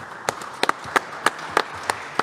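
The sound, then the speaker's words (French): Scattered applause for Romain Villain, marketing director of Hiro: about ten sharp handclaps spread unevenly over two seconds, sparse rather than a full crowd, over a steady background hiss, with no talking. “Applaudissements pour Romain Villain.”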